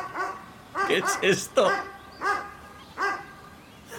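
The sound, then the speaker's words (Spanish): A dog barks repeatedly in short, sharp bursts, a quick cluster followed by a few spaced-out barks, loud, while a person briefly speaks over them. “Porque hay un perro ladrando.”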